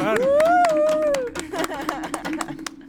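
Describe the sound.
A brief burst of scattered hand claps for the guests, irregular and moderately loud, following a rising then falling vocal tone, with voices mixed in.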